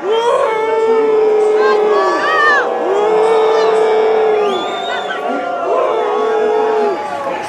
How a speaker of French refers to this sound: À quelques kilomètres de là, au pavillon d'Armenonville, dans le 16e arrondissement de Paris, se déroule la soirée électorale de Marine Le Pen. C'est une toute autre ambiance. L'annonce du résultat est accueillie par des huées.